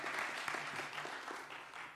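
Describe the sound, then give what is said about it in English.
A crowd claps together in a steady burst of applause given to God, dense overlapping handclaps filling the space at a fairly even level for a couple of seconds. “give god a strong hand clap for that all right”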